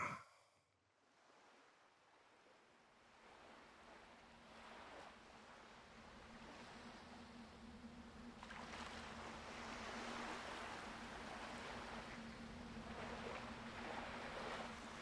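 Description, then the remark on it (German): Ocean waves wash steadily onto a beach, a broad rushing surf that swells louder in the second half, with a low steady hum running underneath and no voices. “Sie liebt es, am Wasser zu spazieren, den warmen Sand unter ihren Füßen zu spüren und dem Rauschen des Meeres zu lauschen.”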